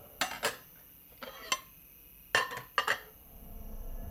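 Dishes clink together as two glasses of water and a bowl of noodles shift on a plate being carried, giving several bright, short chinks in small clusters with brief pauses between them. No one speaks.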